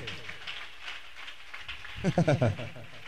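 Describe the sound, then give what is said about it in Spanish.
An audience claps steadily together for God, a dense, crackling wash of many hands that continues throughout, while a voice rises over the applause near the end. “Dele palmas a Dios con todo su corazón.”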